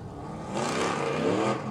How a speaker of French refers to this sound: on entend des bruits de voitures qui s'amènent sur le circuit